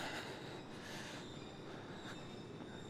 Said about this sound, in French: Ce qu'on entend en ce moment, c'est le tramway de Tampa, qui est un petit tramway. Attention, ça va passer à côté de nous.